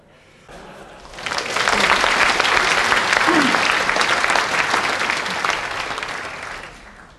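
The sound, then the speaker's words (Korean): A large audience at a speech bursts into sustained applause after a line praising Korean-made kimchi refrigerators, a dense, loud wash of clapping that swells after a quieter start, holds steady for several seconds, then gradually tapers off. No one speaks over it. “박수를 쳐주시니까 한마, 한마디 더 하겠습니다.”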